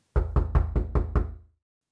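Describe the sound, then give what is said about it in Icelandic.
Five firm, evenly spaced knocks by four federal marshals on the wooden front door of a family home in New Orleans on 14 November 1960, solid with a low thud, followed by silence. No voices. “Það er barið á dyrnar á heimili Bridges fjölskyldunar.”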